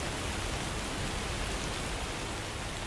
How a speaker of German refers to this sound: Und er hat gesagt, stopp Regen. Und ist war fertig. Und komm Regen. Und hat wieder geregnet.